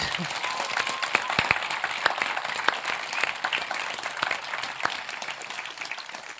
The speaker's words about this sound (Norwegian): Jeg synes egentlig faktisk vi skal gi en applaus til de som driver øya med arbeidsgjengene.